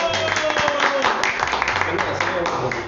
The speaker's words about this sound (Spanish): Qué emoción, qué emoción de verdad, muchas gracias por esos aplausos tan espontáneo. De verdad, no pensé que eran tan amorosos, que me querían tanto.